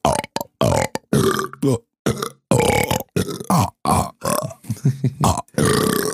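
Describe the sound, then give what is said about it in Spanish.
A rapid series of loud burps, one after another with short gaps, some long and guttural, continuing for several seconds with no talking. “y sí, el gentilicio de eructos es parvada.”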